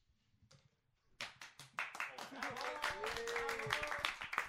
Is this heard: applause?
yes